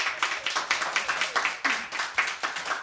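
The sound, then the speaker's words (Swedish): A short round of applause during a broadcast, welcoming a guest musical artist: a few hands clapping in a quick, steady rhythm of sharp, bright slaps at an even, moderate loudness, with no talking over it. “En liten applåd.”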